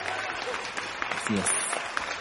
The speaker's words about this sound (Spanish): ¡Otro aplauso!